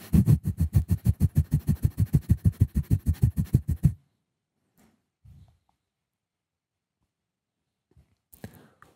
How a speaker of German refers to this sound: Die letzten 15 Sekunden nochmal so schnell du kannst. Hecheln das Kapalabhati.